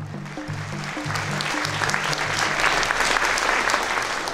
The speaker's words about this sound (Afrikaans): Aan die einde van die konsert is daar groot applous.